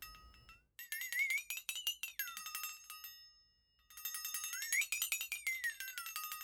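A flexatone, an old-time funny sound-effect instrument, is demonstrated, rattling out two bright, warbling bursts, its metallic ringing pitch sliding up then down in a wobbly, cartoonish swoop, with a short pause between them.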